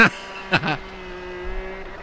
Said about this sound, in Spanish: Es su Ferrari. Ah, ah sí, Ferrari. Ah, es un Ferrari. Ferrari. Un Ferrari. Un Ferrari. F28. Ok. 2019. Uy, no más. A ver, ahí va. Prenda el carro del Tuca. Naturalmente, todavía arranca el carro, no cagajo.